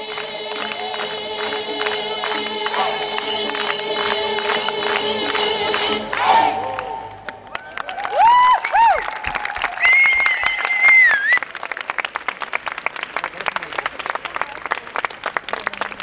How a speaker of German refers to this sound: Die Aktion ist also ein voller Erfolg. Der Stübenplatz tobt und bebt.